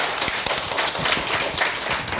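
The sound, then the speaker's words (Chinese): An audience applauds, many hands clapping in a dense, steady patter of sharp overlapping claps that holds at an even loudness throughout, with no voices. “我我看剩下的要自己摸索了，不要光鼓掌。”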